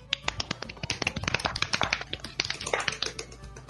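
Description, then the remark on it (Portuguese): A dense patter of many hands clapping, sharp overlapping claps rolling on steadily for a few seconds like a small crowd applauding, with no voices over it. “palmas, palmas, palmas.”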